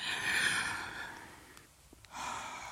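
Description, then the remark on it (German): A group doing ujjayi yoga breathing together: a long, airy exhale with a soft hissing, ocean-like quality fades out, followed by a brief pause with small clicks before another breath of the same rasp begins. “konzentriert euch auf eure Atmung. Wir atmen alle gemeinsam.”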